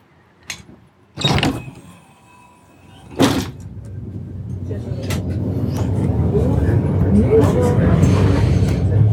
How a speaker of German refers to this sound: Und da sehe ich auch schon meinen Bus.